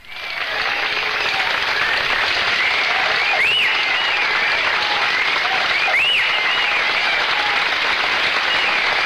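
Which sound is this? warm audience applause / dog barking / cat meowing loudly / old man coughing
warm audience applause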